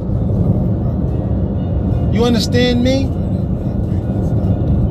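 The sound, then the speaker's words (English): A steady low rumble fills the whole recording from inside a moving car on the road as a man drives to a business meeting, with the man briefly speaking over it near the middle. “This is car talk. I'm on my way to my next business meeting.”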